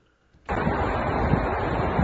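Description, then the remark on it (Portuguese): A sudden, loud roar of strong wind starts after a brief quiet moment and keeps blowing steadily, rushing and buffeting the microphone, in San Francisco, United States, with the Golden Gate Bridge in view. “aqui levantando porque o vento aqui é forte, meu.”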